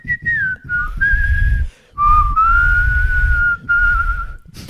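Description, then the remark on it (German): A person whistles a tune in clear, sustained notes, with a few short pauses between phrases and breathy low-end noise underneath, fairly loud. “Krass, professioneller Pfeifer.”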